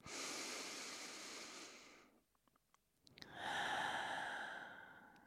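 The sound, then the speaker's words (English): A long, deep breath drawn in while grounding oneself, feet planted on the ground, a brief quiet pause with small clicks, then a full, airy releasing exhale with a breathy rush. “So I'll do that and then take a really deep breath, sort of how we start these podcasts.”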